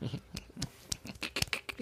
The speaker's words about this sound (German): Zwergenapplaus, weil so mini-witzig.